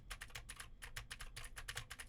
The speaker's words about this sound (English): Now I am typing on the keyboard with Gateron blue switches to see how much of my voice versus how much of the keyboard it picks up.